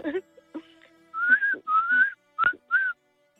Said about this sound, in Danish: Og vi skal naturligvis lige teste dine fløjteevner. Du kan derfor meget passende lige fløjte din alder. Kom.